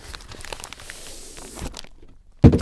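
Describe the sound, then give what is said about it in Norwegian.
Crinkly rustling and scraping of a cardboard bag-in-box holding four liters of wine in a plastic bag being handled, a brief pause, then a sudden loud crunch as it is moved again. “Oh, der har vi fire liter av én vin servert i en plastpose.”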